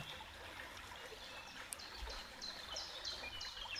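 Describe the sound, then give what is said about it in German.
A river flows steadily with a soft, continuous babbling rush, fairly quiet and even throughout, with a few faint bird chirps high in the background. “mit diesem Fließen und vielleicht manchmal auch erst kräftigeren Spülen, wegspülen,”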